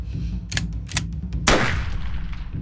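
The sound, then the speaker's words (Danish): One barrel of a hunting shotgun fires: a loud blast with a sharp crack and a long, rumbling decay, preceded by a few short metallic clicks over a steady low hum. No one speaks. “Du øh, fyrer et øh, løb af med havlgeværet og rammer ham i brystet.”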